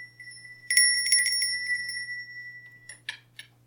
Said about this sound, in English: We have some control, and we, we use little things like I can pick this up or I can shut it down. I can ring this bell